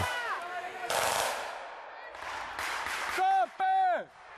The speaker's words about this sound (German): Plötzlich Schüsse von irgendwoher aus dem Wald und niemand weiß so recht von wo.